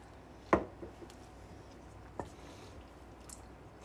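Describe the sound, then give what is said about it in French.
Thin pasta sauce with pesto in it squelches as it is stirred: one sharp, wet splat early on, then a softer second squish a moment later, against a quiet background with no talking. “En vrai, le bruit est ignoble, mais la, sauce s'est épaissie avec euh, le pesto de base que j'avais mis dedans.”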